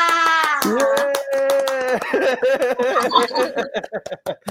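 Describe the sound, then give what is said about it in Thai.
A crowd applauds, called on to give loud applause for a coach, with claps ringing out steadily across the whole stretch while loud cheering voices and a sustained tonal sound play over them, the clapping growing more scattered toward the end. “ดังนั้นขอเสียงปรบมือดังๆ ให้กับโค้ช”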